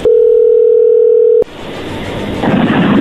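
A steady, loud telephone dial tone, heard while a phone call is being placed, holds at one mid pitch for about a second and a half, then cuts off abruptly into a rough, noisy hiss that swells slightly toward the end.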